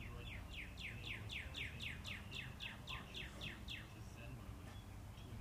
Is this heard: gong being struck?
no